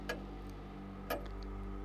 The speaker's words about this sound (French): Il reconnaissait le silence de son bureau, habituellement brisé par le tic-tac régulier de l'horloge, mais désormais, autre chose le troublait.